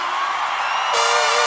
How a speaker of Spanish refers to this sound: Y échenle un grito mexicano, raza.